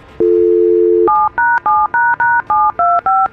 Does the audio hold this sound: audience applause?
no